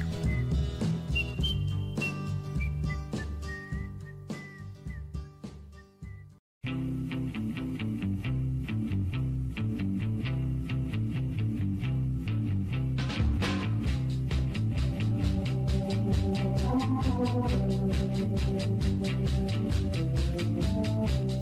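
A whistled melody floats over a mellow old soul band for several seconds, then stops briefly before the full band with warm horns and steady rhythm resumes.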